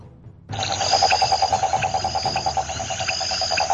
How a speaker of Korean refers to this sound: 그러자 그때 엄마 청개구리가 목청을 높여 크게 크게 울기 시작했어요.